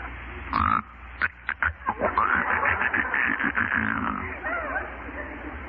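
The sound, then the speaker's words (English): A man imitates a type 7 snore, the interrupted inspiration or static lag variety: a rasping breath broken into several short choppy catches before stretching into a longer, rattling drawn-in snort. It's fairly loud and sounds like an old recording. “Type 7, the interrupted inspiration or static lag variety.”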